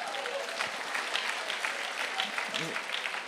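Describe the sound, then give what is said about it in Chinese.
An audience at a presentation about a collagen drink claps steadily for about three seconds, a dense, even patter of many hands with a brief murmur of voices underneath. “拍手。”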